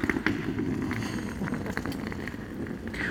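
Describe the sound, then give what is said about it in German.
A rolling suitcase rumbles steadily across a rough surface, its wheels clattering with small repeated clicks as it rolls back past, with no one speaking. “Der Koffer fährt auf der anderen Seite wieder zurück.”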